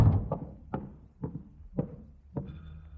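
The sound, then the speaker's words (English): A series of five or six solid knocks on the wooden front door of an apartment, evenly spaced and moderately loud, with no voices, followed by a faint high ringing tone at the end. “Uh, somebody at the front door. Uh, shall I answer it?”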